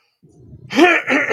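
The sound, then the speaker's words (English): A raspy throat clearing: a low gravelly rumble builds, then breaks into two harsh, noisy bursts of hacking, loud and alone with no talking. “Excuse me while I clear my throat.”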